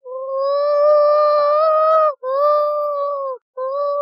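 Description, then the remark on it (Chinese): A voice imitates a crowd's cheering "woo," holding three loud, steady-pitched hoots: a long first one, a shorter second, and a brief third that is cut off. “但是几乎关乎的都是超慢国的人，所以都是呜呜”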